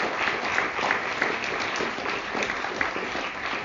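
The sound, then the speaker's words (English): A crowd applauds steadily for the Catholic Worker, a dense, even patter of many hands clapping at once, sustained without pause for a few seconds at a moderate level. “Let's hear for the Catholic Worker for just a second.”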